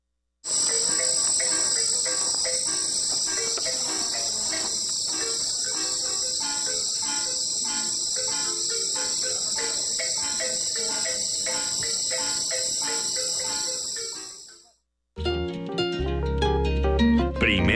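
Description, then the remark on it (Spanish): A dense chorus of crickets trills steadily and loudly at night in Ejido Jerusalén, Chiapas, a constant high-pitched shimmer with faint pulsing beneath, filling the scene for about fifteen seconds before it cuts abruptly to a different, busier sound. “Vamos a escuchar la siguiente postal sonora, Noche en Ejido, Jerusalén, Chiapas.”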